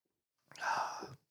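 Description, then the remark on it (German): A single drawn-out, theatrical groan from one voice, breathy and strained, lasting well under a second before trailing off, with no talking around it. “Gut, ich ächze jetzt einfach, komm.”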